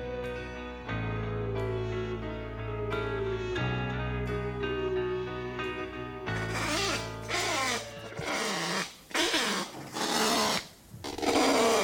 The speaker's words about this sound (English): Ah, the sweet sound of the kakapo. Kakapo were once abundant in New Zealand, found throughout the North Island and the South. Today, however, the few nocturnal flightless parrots are only found on a handful of pest free islands,